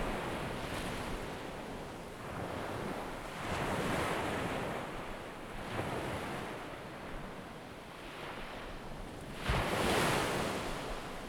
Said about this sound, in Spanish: y voy a pedirte que centres tu atención en el sonido de las olas. Visualízalas en un movimiento perfecto.